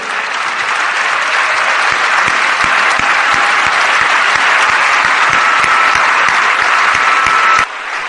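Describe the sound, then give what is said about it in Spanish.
Loud, sustained applause from a large audience for the standing women who are raising families on their own, dense clapping filling the room steadily for several seconds with a few sharp claps standing out, ending abruptly near the end. “Vamos a darles un fuerte aplauso.”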